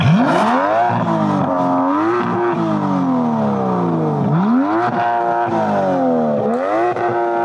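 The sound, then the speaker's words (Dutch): A powerful Aston Martin 5.2-litre V12 engine of 608 hp revs repeatedly, pitch sweeping up and falling back in several loud surges with a rich harmonic roar, no talking. “5,2 liter V12 motor, 608 pk, 0 tot 100 in 3,9 seconden.”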